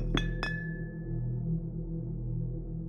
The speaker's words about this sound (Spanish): Reconocí el sonido, era de un vaso de vidrio que había dejado en el suelo por flojera